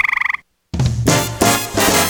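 A frog croaks in a quick, rattling burst of about eight pulses, loud, then a short silence before music starts up. It closes a radio ad for Professional Tree Care.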